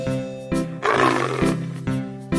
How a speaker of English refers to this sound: Tiger